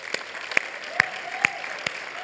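Scattered applause as people clap for one another, with a handful of sharp, evenly spaced claps standing out over a soft, steady wash of lighter clapping; moderately loud, with no talking.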